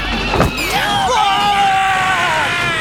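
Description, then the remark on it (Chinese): A car engine revs up as the vehicle drives out through the gate of a residential complex, its whining pitch climbing quickly and then holding steady over a constant, fairly loud background rumble. “跑到一个岔路口时，拉布拉多警长忽然听到小区门口传来车辆开出来的声音”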